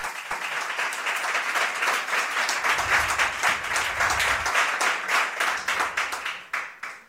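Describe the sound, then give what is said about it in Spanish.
A live audience at a special recording of the Onda Cero programme Quinótico applauds steadily for about seven seconds, dense overlapping claps forming a loud, even roar that tapers slightly at the end. No one speaks. “Qué bien suenan los aplausos, estoy muy contento.”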